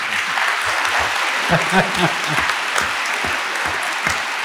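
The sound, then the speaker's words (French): Steady applause from an audience, a dense wash of many hands clapping at an even level throughout, with a few faint voices mixed in underneath. “Applaudissements.”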